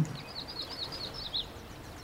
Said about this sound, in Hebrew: המים הכחולים של הכנרת בחורף, קנים צומחים מתוכם. על רצועת האבנים הצרה הכלב נמנם בשמש. ושקט. קול של מים ושל ציפורים.